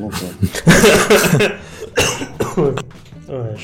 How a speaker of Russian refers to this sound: Не успеваю микрофон выключать, когда кашляю от смеха.